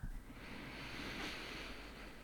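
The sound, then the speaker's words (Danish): A long, deep breath drawn in before speaking, a steady airy hiss that swells slightly midway and lasts a couple of seconds, with no talking. “Jeg tager lige en dyb indånding”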